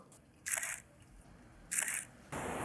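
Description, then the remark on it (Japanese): A camera shutter fires three times, each release a crisp, bright mechanical clack with a short whirring tail, spaced unevenly against a quiet, faintly hissing background with no talking. “まああのね、いつも F11500 分の1で切るって言ってはいるけど、プロとしては250分の1ぐらいは切れると。”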